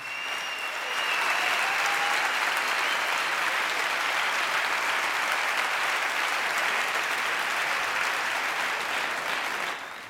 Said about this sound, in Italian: applausi meritatissimi per questa straordinaria coppia, …, ….